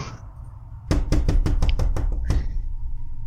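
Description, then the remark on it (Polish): A quick series of about eight firm knocks on the main door, evenly spaced and fairly loud, over a low background hum with no one speaking. “Ktoś puka? Do których to drzwi? Do waszych.”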